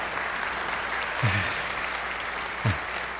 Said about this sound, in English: And uh, let's give these two a round of applause as thank you for being here.